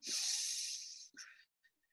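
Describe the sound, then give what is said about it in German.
A long, forceful hissing exhale through the mouth, loud, done as a breathing exercise, followed by a shorter sharp breath out and a faint trailing puff, with no speech. “Und dann hat er mir Atemübungen gezeigt und seitdem habe ich die irgendwie im Kopf drin.”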